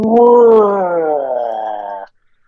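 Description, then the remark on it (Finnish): A voice imitates a 13-year-old computer straining noisily after 64 files were selected and Enter was pressed: one loud, sustained groaning drone lasting about two seconds, its pitch sagging slightly before it stops abruptly. “Ja sitten rupeaa, tiedätkö, ikkunaa aukeaa, ja tämä mun 13 vuotta vanha mm-hmm. tietokone huutaa silleen,”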